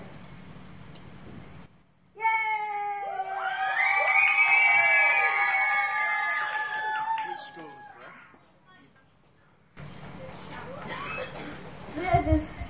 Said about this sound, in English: Merry Christmas Eve at the MKM Stadium. Get ready for Hull City rushing into battle with Bridlington Town. The team is running. The, the team is walking out and people are throwing and cheering for the team.